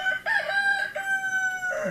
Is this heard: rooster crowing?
yes